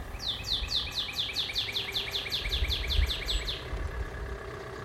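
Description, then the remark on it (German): On a quiet Berlin street during the first COVID-19 lockdown, a bird sings a rapid series of bright, repeated chirps that sweep downward, about a dozen in a row, over a low, steady rumble of street background with no talking. “Da klang es selbst auf Berliner Straßen eher so.”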